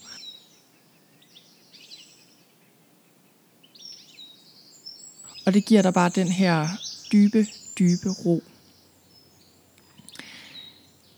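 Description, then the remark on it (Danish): Birds chirp and twitter softly in the background throughout, with a person speaking calmly over the middle stretch before the light birdsong continues on its own. “lyden af fuglesang er virkelig en form for beroligende medicin for os.”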